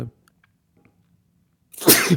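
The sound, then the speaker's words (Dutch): A single loud sneeze bursts out after a moment of near silence, with a sharp breathy onset and a throaty finish. No one speaks. “Oeh, sorry. Zo, gezondheid.”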